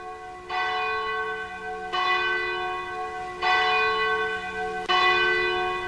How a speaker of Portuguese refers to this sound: Quando são 21 horas 47 minutos, 13 para as 22 horas tocam o sino da Catedral da Nossa Senhora de Aparecida.